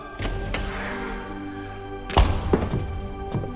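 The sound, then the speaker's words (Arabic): A heavy wooden thunk as the door of a room is flung open and five strange men enter, followed by a couple of knocking thuds and scuffs, with a low steady hum underneath. “فجاه فتح باب الغرفه ودخل منه خمسه رجال اغراب يتطاير الشر من عيونهم”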